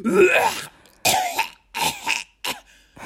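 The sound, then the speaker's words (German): Someone imitates the heavy, gross-sounding cough of a person in a doctor's waiting room: a loud run of four or five harsh, phlegmy hacking bursts with brief gaps between them, and no talking. “Weißt du, und dann oh gucke ich die an und denk so, wow, du sahst jetzt gar nicht so aus, als hättest du so, wieso hustest du so ekelhaft?”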